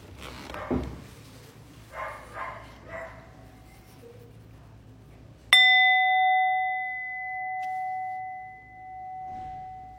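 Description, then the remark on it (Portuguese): A small meditation bell, used in a guided Zen meditation practice, is struck once, clear, its bright tone ringing out and slowly fading over several seconds. A few muffled handling sounds come before the strike. “Então, peraí que eu vou pegar o sininho.”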